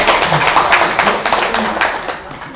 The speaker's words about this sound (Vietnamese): vì nhiều người quá là thưởng cho vỗ tay thôi